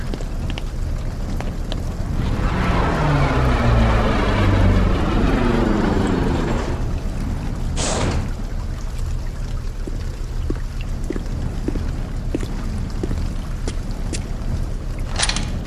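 Steady rain hisses throughout, with scattered individual drops ticking in the later half. Early on, a rumbling tone sweeps downward in pitch, and a short, sharp burst of noise cuts through midway. No one speaks.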